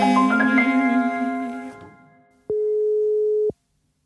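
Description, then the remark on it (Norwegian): A telephone ringing tone sounds once as a steady, clear electronic beep lasting about a second, following a fading harmonic tone, with no voices, as a call is placed to a sponsor. “Dette er jo da Tre ganger hjeltene som ringer deg.”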